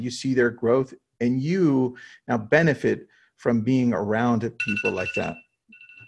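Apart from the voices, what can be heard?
phone alarm ringing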